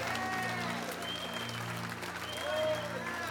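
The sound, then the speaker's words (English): A large audience claps together in a dense, continuous wave of applause, fairly loud throughout, with scattered voices calling out underneath the clapping. “Come on, clap like you got victory in here.”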